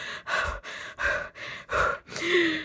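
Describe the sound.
A voice imitates heavy, breathless gasping for air after dancing: six or seven rapid, loud panting breaths in a steady rhythm, with no words spoken.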